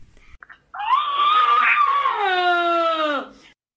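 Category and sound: animal, elephant trumpeting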